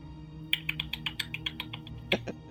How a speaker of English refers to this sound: I will play the castanets as backup. There's a little clicking that echoes through the